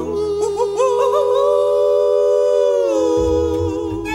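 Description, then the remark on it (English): A single long, loud howl, sliding upward in a few wavering swoops before holding a steady high note for several seconds, then trailing off under a low rumble. “We're gonna hoop and holler and howl at the moon.”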